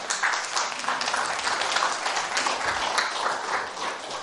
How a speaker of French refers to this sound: On les applaudit ensemble. Ça prend du courage.